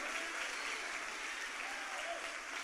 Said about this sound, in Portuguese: Pode aplaudir a Jesus. Pode aplaudir mais forte a Jesus nessa manhã.